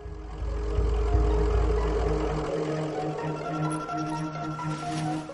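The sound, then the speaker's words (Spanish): A steady, low engine hum of cars idling outside, with a heavy rumble at first that eases into a constant droning tone. No one speaks. “Fuera se oían los coches al ralentí.”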